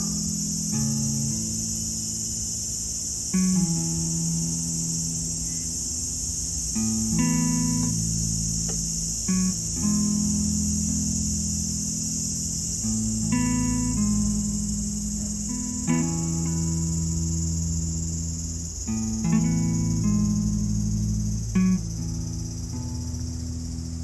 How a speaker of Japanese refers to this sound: 今今年初めてのセミを見ましたちゃんとやっぱりいっぱいいるんだろうけどねセミはね音はすごく聞こえるんだけど今見れたな